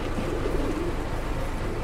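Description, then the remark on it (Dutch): Racing pigeons, some 480 birds to be driven to Orléans and released to fly home, coo together in a steady, overlapping murmur, the soft throaty calls continuous against a low background rumble, with no one speaking. “Jullie rijden helemaal naar Orléans met deze duiven.”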